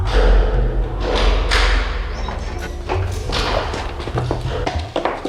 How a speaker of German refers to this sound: wie lange sie schon im Heizungskeller ausgehalten hatten, als die Tür wieder aufgeschlossen wurde.